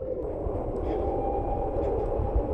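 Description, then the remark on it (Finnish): A faint, steady electric motor whine from the rear of an electric car sits over a continuous low rumble of road noise as the car is driven around laps, with no voices and no change in pitch. “Äänimaailma on aika hillitty. Pieni olina kuuluu takaa.”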